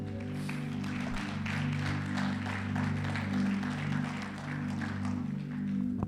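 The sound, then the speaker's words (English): An audience gives a hand clap of praise to the Lord, clapping steadily for several seconds in a dense, even patter of hands, while sustained low organ chords hold underneath throughout. “Why don't we give the Lord a hand clap of praise this morning?”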